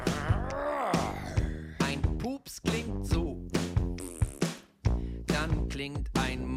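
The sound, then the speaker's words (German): A voice imitates a monster, making loud, rough growls and roars in several bursts with brief pauses, filling the whole stretch. “Ein Monster klingt so.”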